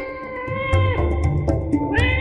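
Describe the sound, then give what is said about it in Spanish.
A cat meows in a long, drawn-out, wavering cry that bends in pitch a couple of times, fairly loud with no one talking. “Cuenta una fábula india que había un ratón muy angustiado porque tenía miedo al gato.”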